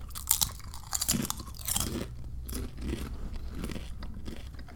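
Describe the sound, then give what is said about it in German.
Someone crunches potato chips while eating, a series of crisp, brittle bites and chewing crackles, loudest in the first couple of seconds, then softer, steady munching with no talking. “Die schmecken wie normale Chips.”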